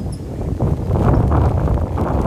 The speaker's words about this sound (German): Ja. Sturm, Regen.